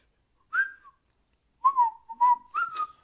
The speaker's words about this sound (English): When you're feeling in the dumps, don't be silly chumps. Just purse your lips and whistle.